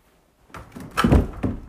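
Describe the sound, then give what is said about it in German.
A small wooden loft bed creaks and thuds, a short run of dull knocks and groaning wood that builds to a heavier bump, with no voices. “Ich schwöre, das ist so ein kleines, kleines Hochbett. Das ist, das knarzt immer.”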